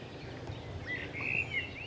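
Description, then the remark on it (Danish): A nightingale sings a few brief, clear whistled notes over a steady low outdoor rumble, fairly faint, by a lake at the edge of a rapeseed field. “Men ellers er der et ret forunderligt dyreliv her i forhold til mange andre steder. Blandt andet nattergalen.”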